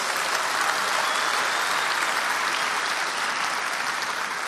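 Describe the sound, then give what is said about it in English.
A large crowd of adults claps together to thank the students and children present, in sustained, steady applause that fills the space at an even loudness for several seconds, with no voices standing out. “Adults, can we thank them for being in this space with us?”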